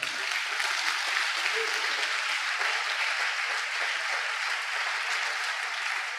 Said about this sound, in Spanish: Les ese aplauso al Señor.